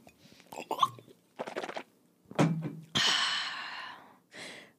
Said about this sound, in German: Einfach auch mal nur so atmen und Geräusche machen. Ich bin mir sicher, dass die Leute das auch mal mögen.